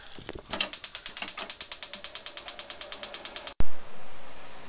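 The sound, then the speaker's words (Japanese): A gas grill igniter clicks rapidly and evenly, over two dozen sharp ticks, then a sudden loud thump as the grill ignites gives way to a steady rushing hiss; the grill is lit for toasting mochi rice cakes. “はいグリルに着火しました”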